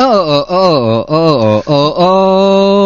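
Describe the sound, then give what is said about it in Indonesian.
A single voice sings a rooster crow as a run of short rising and falling 'oh' syllables, ending on a long held note, loud. “Kokok lu bunyinya begini misalnya ya.”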